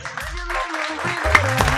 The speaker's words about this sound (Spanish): ¿A quién le aplaudimos? ¿Le aplaudimos a la mujer